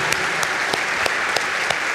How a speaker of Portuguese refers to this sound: Amém. Amém. Você pode aplaudir a palavra do Senhor, querido? Aleluia.